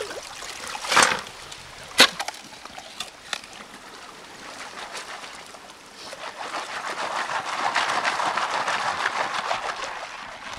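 River water trickles and burbles steadily at a river bend in Plymouth State Park, about a mile downstream from the old Rooks mine, where a man digs with a shovel to pan for gold; a couple of sharp splashy knocks early on and the flow swells fuller and louder toward the end; no one speaks.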